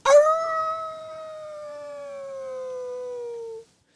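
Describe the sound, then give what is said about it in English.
A single long, mournful wolf howl rises briefly and then holds a steady, slowly falling tone for about three and a half seconds before stopping abruptly. It is clear, with no talking. “Let's hear it. The, the Wolves Howling Five.”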